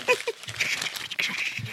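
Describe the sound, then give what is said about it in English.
A voice imitates crumpling, burning paper with a steady, hissy crackle of breathy mouth noise, fairly quiet, lasting a couple of seconds with small uneven pops. “I was doing the fire sound, yeah, hey. which is also the crumpling sound.”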